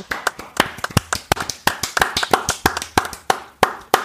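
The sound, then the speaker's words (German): Four people clap their hands for about four seconds, applauding the Mercedes Formula E season, with sharp overlapping slaps in a quick, uneven rhythm and no talking. “Lass mal alle in die Hände klatschen, äh, der Vollständigkeit halber, für diese Mercedes-Saison.”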